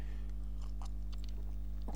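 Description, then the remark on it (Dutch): Someone takes a quick sip of water, with soft wet mouth clicks and a swallow over a low, steady background hum. “even een slokje water.”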